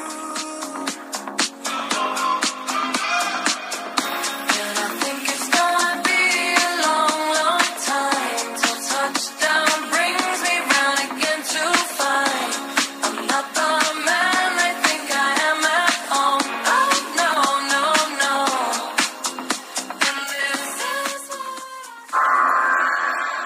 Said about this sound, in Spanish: para que esté consciente de lo que estuvo sonando. Se llama … en español.